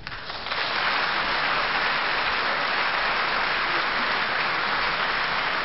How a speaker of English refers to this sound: Maybe you can put some hand claps or some people cheering in the background. Yeah. Let me leave a little gap for them right quick.